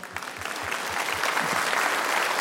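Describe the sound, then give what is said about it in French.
An audience breaks into applause, a dense patter of many hands clapping that swells slightly and holds steady, with a faint low rhythmic thump beneath it early on. “Et j'imagine que par applaudissement, il y a deux, trois personnes dans mon cas dans la salle.”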